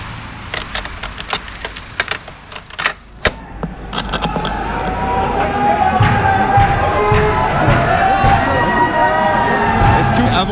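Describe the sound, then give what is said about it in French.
A protest recording played from a cassette labeled 'Première manif' (first demonstration): a few seconds of clicks and clatter give way to a loud, dense protest crowd, many voices shouting and calling over a steady roar that holds to the end. “Justement, sur cette cassette, il y a écrit Première manif, enfin on sent fort.”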